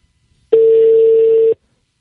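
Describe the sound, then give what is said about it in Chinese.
A single telephone ringback tone: one steady, mid-pitched beep held for about a second, then cut off cleanly, with silence before and after and no voices. “哎，响了。”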